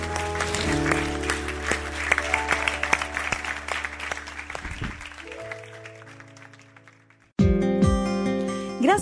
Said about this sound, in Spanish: ¿Por qué no damos un fuerte aplauso a nuestro Dios?